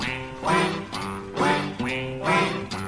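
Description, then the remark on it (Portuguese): A duck quacks in a quick series of three or four loud, raspy, nasal calls, each one short and harsh, with no voices around it. “E eu falei o nome dele, não adianta, você fala, você chama pato assim, é só dizer pato, ele vem correndo.”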